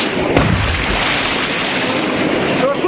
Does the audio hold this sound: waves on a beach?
yes